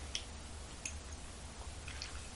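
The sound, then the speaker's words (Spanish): Soft mouth sounds of someone taking the first small sips of the day of bitter coffee, a few faint wet clicks and slurps spread over a quiet background hum, with no talking. “Así que me voy a dar el primer buchito del día.”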